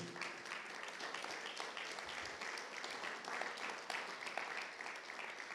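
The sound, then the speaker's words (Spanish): An audience at a Spanish-language church service applauds steadily for the Lord for several seconds, a dense, even wash of many hands clapping together, with no voices standing out above it. “Si lo va a dar, déselo fuerte al Señor.”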